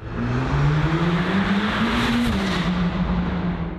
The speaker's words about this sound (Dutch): Ja, of rijden met een Mercedes AMG GT Black Series van tuner Absolute Motors.